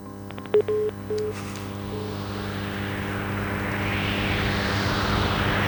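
A synthesized wind effect swells steadily, a broad airy whoosh rising in intensity over a steady electronic drone, with a few short beeping tones near the start.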